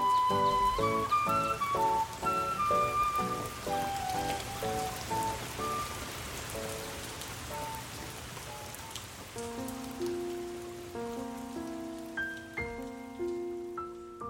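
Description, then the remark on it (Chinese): Light rain in Beijing falls in a soft, continuous hiss beneath gentle melodic music, with picked notes giving way to long sustained tones. No one speaks. “近来北京的天气预报说要下雨，我心心念念的雨终于来了，可是他却甩了我零星几点回报我。”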